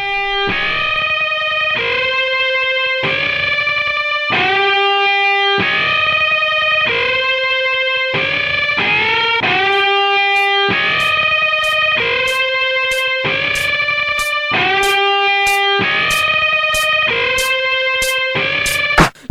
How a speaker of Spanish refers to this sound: Vamos a escuchar música y como todo tiene que ver con todo